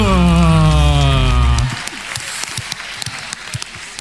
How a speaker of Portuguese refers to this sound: Uma salva de palmas para esse povo bonito!